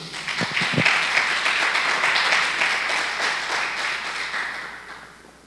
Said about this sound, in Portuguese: Dá mais um aplauso ao Senhor aí.